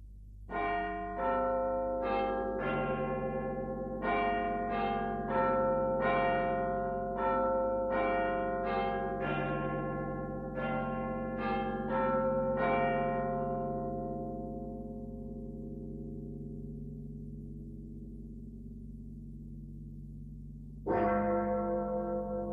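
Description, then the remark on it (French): The large tower bells of Big Ben ring out their familiar chiming melody, a steady series of rich, resonant strikes that slowly fade, followed by a single deep bell stroke near the end. “Bah, donc c'est la sonnerie de Big Ben.”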